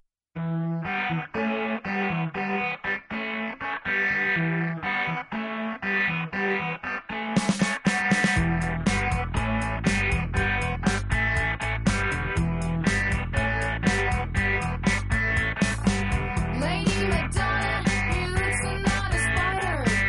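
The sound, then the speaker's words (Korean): A recorded pop song plays with no talking: a sparse melodic intro of plucked, harmonically rich notes, then at about seven seconds full band kicks in with driving bass, drums and bright, distorted guitars. “자 노래 들까요?”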